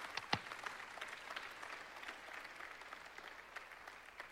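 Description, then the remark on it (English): A church audience applauds steadily to thank its elder leadership, a dense patter of many hands clapping at once, with one sharper clap near the start, carrying on evenly through the whole stretch. “Can we thank them for that?”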